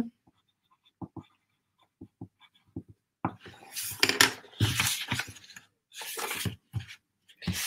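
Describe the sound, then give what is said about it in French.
A pen scratches across paper as someone writes down a note, beginning with a few light taps and then settling into quick, uneven bursts of writing strokes with short pauses between them. “Euh, la peur de réussir aussi, ouais, je vais noter, écoute.”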